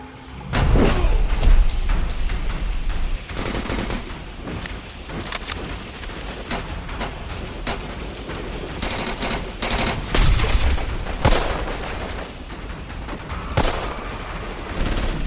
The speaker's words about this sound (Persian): یهو درگیری شدید میشه و تیراندازی بین گروگانگیرا و پلیس آلمان در واقع همون 5 تا پلیس آلمانی به شکل خیلی شدید و پیش بینی نشده شروع میشه